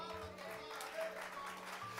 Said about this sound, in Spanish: Esta es la fortaleza. Dele un aplauso al rey.